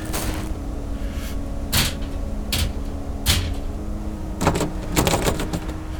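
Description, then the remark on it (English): Someone repeatedly tries a locked door, the handle and latch rattling and clunking in several sharp bursts over a low steady hum, with no voices. “The door's locked.”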